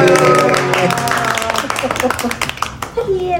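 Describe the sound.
An audience in Tehuacán breaks into applause for a speaker being introduced: a dense, steady patter of many hands clapping for a few seconds, with voices and a sustained tonal sound mixed in at the start.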